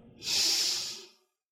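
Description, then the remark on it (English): A single long, deep inhalation taken during a breathing warm-up exercise, a breathy airy rush swelling quickly and holding for about a second before fading out. No talking. “Did you just take a deep breath? Okay, let's do it together. Breathe in”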